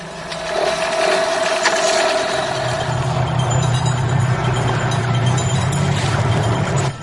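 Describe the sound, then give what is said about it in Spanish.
A motorboat's motor cranks and struggles to catch, with a steady ratcheting mechanical rattle that settles into a low, labored rumble. It is loud, with no voices. “Como en una película de terror en la que el motor no arranca.”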